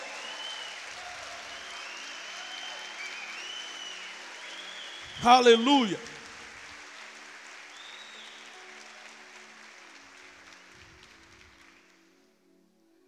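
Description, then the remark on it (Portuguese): Sustained applause from a church audience applauding Jesus, a steady dense patter of many hands clapping for about twelve seconds. Midway a loud voice shouts over it, then the clapping gradually fades out. “Agora, se quiser aplaudir a Jesus, faz com força.”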